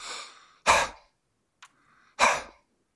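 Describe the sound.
A person forcefully imitates a dog's thrusting panting: two loud, breathy bursts about a second and a half apart, each with a softer rasp before or after, with no talking.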